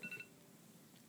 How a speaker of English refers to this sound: What? Oh God, that's my alarm.